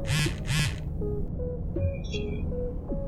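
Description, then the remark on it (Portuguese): A mobile phone message notification tone sounds: two quick, raspy quack-like bursts, then a short, bright electronic chime, clear over a low hum, with no talking. “Enquanto você tá ali terminando de se arrumar então, você escuta o seu celular vibrando naquele, na, naquele toque de mensagem, tá ligado?”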